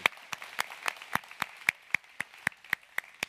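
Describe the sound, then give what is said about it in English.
A round of applause for first-time guests during a worship service: a soft wash of clapping with one sharp, steady clap standing out roughly four times per second, fairly quiet overall and with no talking. “So, could we give our first time guests a great round of applause?”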